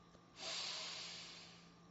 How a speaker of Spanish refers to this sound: Una respiración profunda de nuevo.